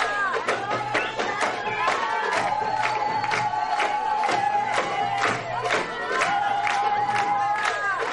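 Steady rhythmic hand clapping keeps time with lively festive music, while a crowd cheers and voices call out in the background throughout.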